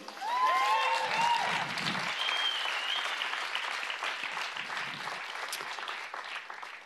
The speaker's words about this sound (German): Das ist unser Gott. Amen. Habt ihr mal einen Applaus für ihn?